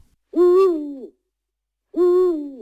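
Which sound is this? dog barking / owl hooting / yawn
owl hooting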